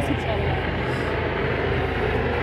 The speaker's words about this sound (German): und wieder ein Hubschrauber